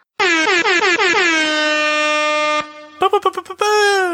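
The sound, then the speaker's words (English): Loud air horn blasts: a rapid stutter of short honks running into one long sustained blare, then a few quick choppy bursts and a final long blast. “I personally have more not, air horns.”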